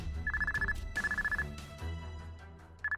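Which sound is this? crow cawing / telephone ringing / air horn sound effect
telephone ringing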